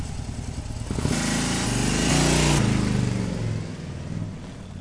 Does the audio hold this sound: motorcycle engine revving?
yes